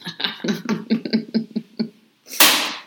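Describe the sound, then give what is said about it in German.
A person laughs in a string of short bursts, then after a brief pause a mobile phone drops and hits the floor with a single sharp, loud clatter that rings out briefly. “oh, was war das denn? Das war mein Handy.”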